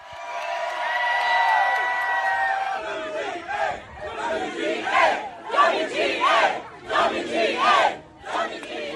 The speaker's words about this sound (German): Die AutorInnen rufen WGA, die Abkürzung für Writers Guild of America, also die Gewerkschaft, die da gestreikt hat.